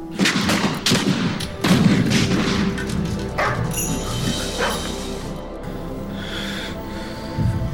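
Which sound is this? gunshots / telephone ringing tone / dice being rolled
gunshots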